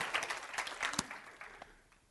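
An audience claps hands together in response to a preacher's call to say amen and clap, a brief burst of scattered, overlapping claps, loudest early on and tapering off over about two seconds, with no one speaking.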